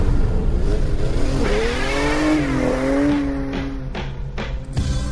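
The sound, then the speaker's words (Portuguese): A Ferrari F8 Tributo sports car's 3.9-litre twin-turbo V8 engine, rated 720 hp, roars loudly, its pitch climbing and holding high before dropping away, with a few sharp bursts of revving near the end and no voices. “Com um motor V8 3.9 triturbo de 720 cavalos, 50 a mais que o modelo anterior, velocidade máxima de 340 km por hora”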